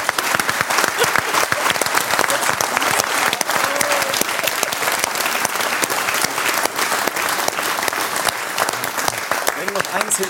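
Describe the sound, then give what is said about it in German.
Steady, dense applause from an audience fills the whole stretch, loud, with many overlapping claps and no clear pauses, for a participant in a hypnosis demonstration. “Nimm deinen Applaus, das hast du sehr, sehr gut gemacht.”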